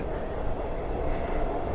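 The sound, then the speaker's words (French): A metro train rumbles steadily past, a dense continuous roar of wheels and motor that stays fairly loud and even throughout, with no voices. “Et Bethléem, où serait né Jésus, est une ville située à 10 km de là, 35 minutes en bus, 15 minutes en métro, arrêt Nazareth.”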